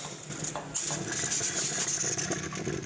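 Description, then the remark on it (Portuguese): An open tap in Greater Curitiba, Paraná, sputters with no water coming out during a drought and water rationing, giving a steady, rough hiss of air with irregular rattling bursts and a low rumble underneath, lasting the whole time without any talking. “Ó, a torneira está aberta, ó”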